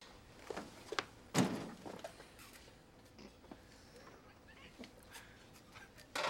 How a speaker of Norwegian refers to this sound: Hvem var det som smelte igjen døren? Unnskyld meg, det står jo på døra. Den skal holdes lukket.